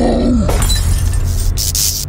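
Lights burst throughout a house during a storm as the power goes out, and glass shatters in a loud, sudden crash, followed by sharp, bright tinkling breaks over a deep, steady rumble. A short, falling voice-like cry comes just before the crash.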